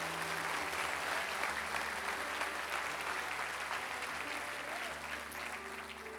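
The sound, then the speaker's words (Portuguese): An audience claps steadily for several seconds in applause for Jesus, a dense, continuous wash of applause that stays loud throughout, with a faint low hum beneath it. “Dê uma salva de palmas a Jesus aí, crente.”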